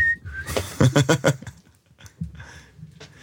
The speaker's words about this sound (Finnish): Oho. Nyt se otti taas sen vihellys.